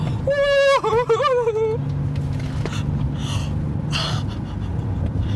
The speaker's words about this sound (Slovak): Uú, motorka.